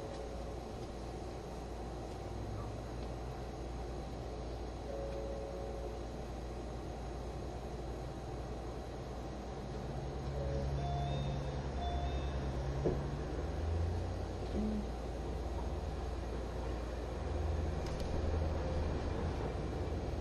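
A steady low rumble inside the Green Car of an HC85 series hybrid limited express Hida No. 1, bound for Takayama on the Nagoya–Takayama route, with engine drone and a faint motor whine running continuously, swelling slightly in intensity partway through; no one speaks.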